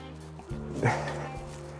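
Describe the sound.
A single short dog bark bursts out during a walk, standing out briefly against a low, steady background hum, with a hint of voice around it.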